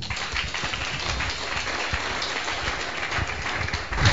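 A crowd claps steadily for about four seconds, a dense, even patter of many hands with no voices, swelling slightly louder right at the end.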